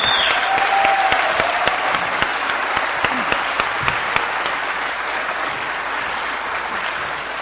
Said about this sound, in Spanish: que se pongan de pie para darles la bienvenida y para darles un fuerte aplauso, por favor. Bienvenidos.